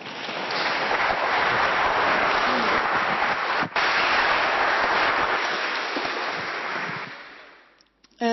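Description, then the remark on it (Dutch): An audience breaks into a dense, steady wash of applause that holds for about seven seconds, then tapers off as a voice begins speaking. “Ik zou zeggen, geef ze een hartelijk applaus.”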